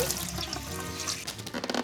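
Warm water sloshing inside a water balloon, a soft continuous wet swishing that turns into quicker squelchy bursts near the end; no voices.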